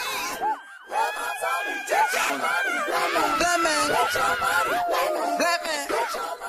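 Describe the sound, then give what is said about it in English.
Vocal interjections in the background of a song: many voices crying out, screaming and laughing over one another, with rising and falling shouted pitches and whoops layered densely, steady and loud throughout with no clear pauses. “You know, these these sort of cries and screams and laughter, and it's like it makes me think of how you can't always tell whether those are cries of joy or cries of pain.”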